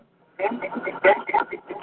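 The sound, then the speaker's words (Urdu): A caller's voice comes through a narrow, tinny phone line on a call-in program, its syllables smeared and doubled by a heavy echo that makes the talking sound muddy and distorted. “hello آواز eco میں آ رہی ہے بہت زیادہ ڈسٹرب آواز آ رہی okay they said is too much eco”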